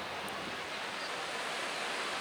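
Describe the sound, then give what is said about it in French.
A steady, full wash of surf rolls on without pause, a broad hissing roar of ocean waves, with no voices and no distinct individual breakers standing out. “Je ne sais pas combien de temps j'étais restée là, debout, devant les vagues avec le désir qui montait, qui m'envahissait.”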